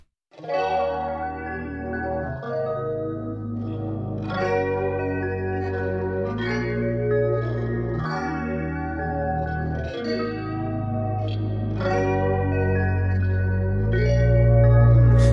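A short instrumental music interlude with effects-laden, chorused guitar tones over a steady bass line that shifts every couple of seconds, building slightly louder toward the end, with no voices.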